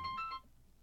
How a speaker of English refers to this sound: And whoops, there goes my phone. Probably my uh,